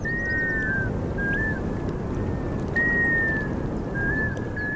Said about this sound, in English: Arctic summer days are long, and the birds' courtship calls go on for weeks. It's an annual symphony unlike any other.